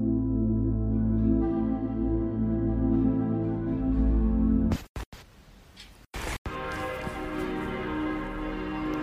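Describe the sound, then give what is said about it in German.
Church bells ring with full, sustained resonant tones that hang and overlap, briefly interrupted midway by a burst of noisy rumble before the pealing resumes. No one speaks. “Gedanken, die mir durch den Kopf gehen wenn ich das Läuten der Glocken höre.”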